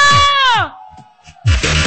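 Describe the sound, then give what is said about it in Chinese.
During a live-streamed DJ club show, a loud, high scream slides downward in pitch over a thumping dance beat, then after a brief lull a noisy burst of crowd screaming and cheering erupts with the music. “那么要礼物的，给我来点尖叫声”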